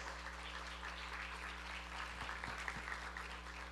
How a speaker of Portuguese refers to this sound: e você vai aplaudindo ao Senhor aí pela vida destes queridos.